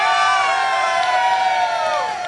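A crowd outdoors, asked to make a lot of noise, cheers and shouts loudly and continuously, many high voices blending into a sustained roar of excited yelling that holds steady before tapering slightly at the end.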